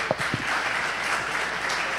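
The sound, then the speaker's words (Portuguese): A church audience gives steady applause to everyone who took part in an Easter (Páscoa) gathering. Many hands clap in a dense, continuous crackle, with no voices rising above it. “Um aplauso aí a todos”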